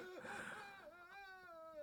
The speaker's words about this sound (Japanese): ここ病院だよここ、誰か泣いてる